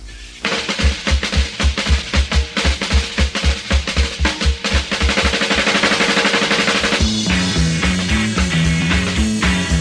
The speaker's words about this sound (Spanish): Una ensalada de tiros da inicio a un desquiciado rock and roll de fabricación propia con mucho guitarreo y ritmo tópico a más no poder.